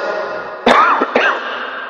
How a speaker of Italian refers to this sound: stasera la tosse non mi lascia in pace.